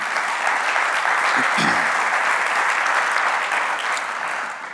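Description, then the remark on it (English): An audience claps steadily and loudly for several seconds, a dense wash of many hands applauding together without pause. “If you're glad for the mystery of faith, let me hear your hands this morning.”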